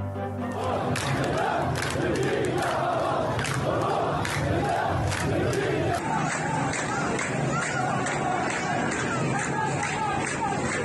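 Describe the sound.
A large protest crowd in Tehran chants the slogan 'Death to Khamenei' in unison, voices loud and continuous with a rhythmic rise and fall, echoing as if outdoors in a street, with scattered shouts rising above the mass.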